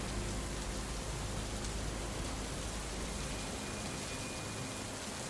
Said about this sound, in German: Der Regen wird stärker. Werdet beide sehr nass, aber das interessiert euch überhaupt nicht.